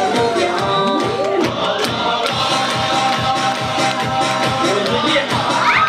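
A loud, steady wave of audience applause and cheering fills the whole stretch, with dense rapid clapping, shouts, and a few rising whistles over the crowd noise.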